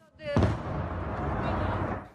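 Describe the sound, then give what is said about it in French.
A missile strike at the Kramatorsk train station in the Donbass region goes off with a sudden, loud, deep boom, then a sustained rumbling roar that lingers for about two seconds. A brief faint tonal sound comes just before the blast. “un missile vient de toucher la zone.”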